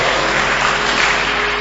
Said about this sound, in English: Please clap for our brother.